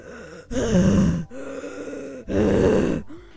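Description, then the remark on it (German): A voice imitates the heavy, panting breathing of overweight gamers sitting at a PC playing Minecraft: two loud, strained huffs with a quieter wheezy breath between them, with no words spoken. “atmen so dumm rum und, und sweaten.”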